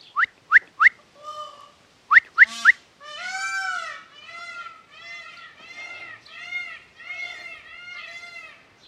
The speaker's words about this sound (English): Oh wow, we got all the peacocks, uh, peacocks making a noise now.